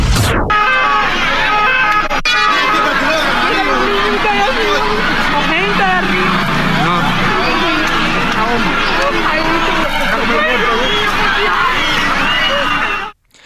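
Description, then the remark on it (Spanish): A chaotic emergency scene after a strong explosion at the Hotel Saratoga in Cuba: dense crowd commotion as dozens of Cubans gather near the hotel, overlapping shouts and voices, wailing sirens woven through the din, and traffic noise, loud and continuous throughout before cutting off abruptly. “Esto que está usted escuchando en sus radios y en sus dispositivos es la emergencia.”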